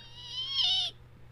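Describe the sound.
A person imitates the whistling night cry of a legendary large evil bird: one high, reedy call lasting about a second, its pitch dropping near the end, heard alone over a faint low background hum.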